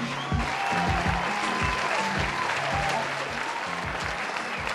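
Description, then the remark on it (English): Sustained audience applause as a performer is introduced, a dense wash of clapping from a sizable crowd that holds steady and loud throughout, with faint cheering mixed in. “Let's give it up for Scotty C.”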